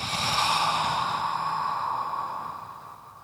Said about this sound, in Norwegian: puster ut gjennom en åpen munn